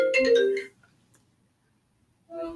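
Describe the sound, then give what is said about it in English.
A phone ringtone signalling an incoming call plays a short, bright melodic phrase of layered tones, goes silent for about a second and a half, then starts up again. No one speaks over it. “Oh shit, Josh's calling.”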